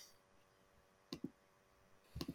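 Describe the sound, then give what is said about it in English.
Soft computer mouse clicks against a quiet background: a pair of quick clicks, a pause, then a short cluster of several more, with no one talking. “Well, there's kind of a clicking going on on your end, by the way. That's my mouse.”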